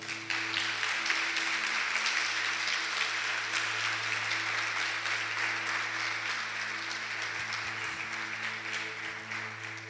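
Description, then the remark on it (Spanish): An audience applauds the Lord steadily for about ten seconds, a dense, continuous wash of many hands clapping at an even level, with a faint low electrical hum underneath and no talking. “Dale un aplauso al Señor.”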